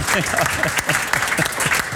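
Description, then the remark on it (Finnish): Audience applause fills the whole stretch, a dense, steady patter of many hands clapping at a fairly loud level, with faint voices mixed in underneath. “Saa, saa taputtaa, se toimii kaikkein parhaiten sitten.”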